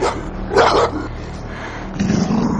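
A large dog snarls with a low, steady rumble as it approaches a woman, baring its teeth, breaking into a loud, harsh bark partway through and again near the end, with no one talking.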